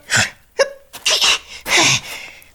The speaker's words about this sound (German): Gesundheit! Hast du dich erkältet? Äh, nein, ich bin allergisch gegen Federn.